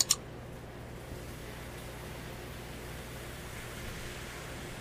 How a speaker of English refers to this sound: Hear that sizzle. That's what you want to hear, man. That means everything is in gear.